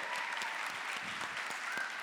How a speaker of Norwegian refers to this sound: Så litt applaus til henne.